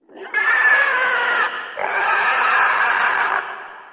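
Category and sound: animal, eerie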